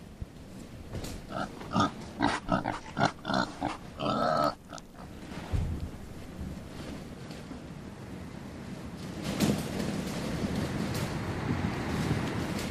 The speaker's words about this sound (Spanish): parece que las investigaciones apuntan a que una piara de ocho cerdos que subieron en una de las naves en la isla de Gomera pudo causar una epidemia que provocó una enfermedad a cientos de españoles y se traspasó también a los nativos de la isla.